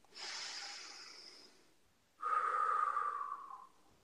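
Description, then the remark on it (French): A deep breath drawn in over about a second and a half, a short pause, then a longer, louder exhale through the mouth, clear with no talking. “Une respiration.”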